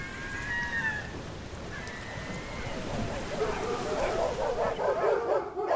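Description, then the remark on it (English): A pack of sled dogs, tethered about an expedition ship, whining in high, drawn-out cries, then breaking into a dense chorus of overlapping barks over a steady low rumble, growing louder toward the end. “I was greatly pleased with the dogs, which were tethered about the ship in the most comfortable positions we could find for them.”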